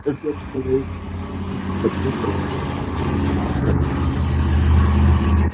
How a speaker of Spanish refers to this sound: Es eh, como que si pasó un camión o algo porque se escuchó como algo así.